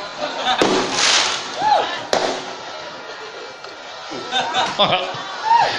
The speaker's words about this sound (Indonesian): Kok nggak karo suara mercon kok gila.